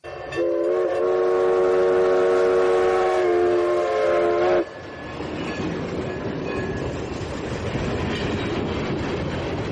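A loud, sustained train horn blasts for about four seconds, then cuts off, leaving the steady rumble and clatter of a passing train that carries on to the end.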